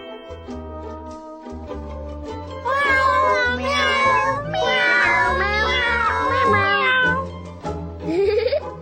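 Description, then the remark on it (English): A cat meows loudly and insistently in a long, wavering, drawn-out yowl over a steady pulsing beat of background music, ending with a short rising cry. “this is my cat.”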